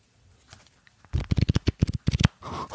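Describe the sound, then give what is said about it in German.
A quick burst of thick cardboard trading cards being shuffled, a dense run of soft flapping riffles, preceded by a few faint handling clicks and ending in a brief rustle. “Also ich habe hier gerade noch die Fußballkarten.”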